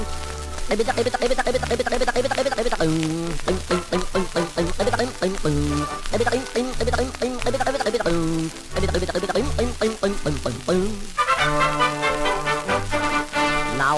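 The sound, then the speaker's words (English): A voice sings a bouncy tune in a croaky, froglike way, imitating a singing frog over steady musical accompaniment that runs loud and continuous throughout. “Unlike other frogs or kittens or dogs, this frog could sing as he'd croak.”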